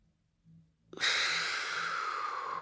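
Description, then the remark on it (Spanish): A single long, deep breath drawn in, a steady airy rush lasting nearly two seconds after a brief quiet pause, taken as an inhale during a guided breathing exercise. “Sigue respirando. Inhalo.”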